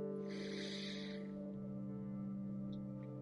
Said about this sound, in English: So we're going to start first by taking a deep breath in through our nose